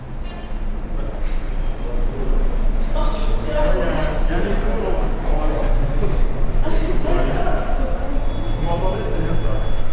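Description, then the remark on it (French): A metro train rumbles steadily into a station and its doors open, with clanks and mechanical clatter over the low roar, a thin high whine near the end, and indistinct voices murmuring in the background. “C'est euh, le bruit de l'arrivée du métro, de l'ouverture des portes.”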